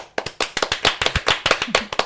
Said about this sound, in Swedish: Varm applåd.